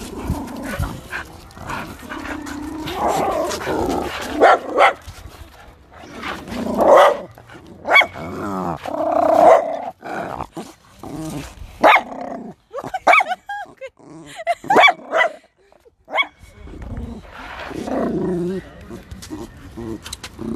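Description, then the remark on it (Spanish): Dogs bark and growl repeatedly, fairly loud, in bursts that overlap and mingle with people talking throughout. “Ya, continuando después de la intervención de los perros.”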